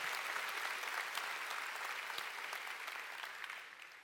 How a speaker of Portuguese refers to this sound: Você que é um anfitrião. Vamos dar um aplauso para esses amados.